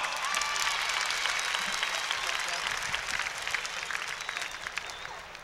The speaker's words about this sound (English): Right on. Give Tommy another great round of applause.